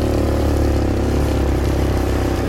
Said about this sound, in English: Because like I said, we are in the metropolitan Atlanta area. We're in an area of Georgia called Ellenwood. And so you're seeing some of the traffic, just to let you know that this is an area that is, uh, you know, still heavily populated.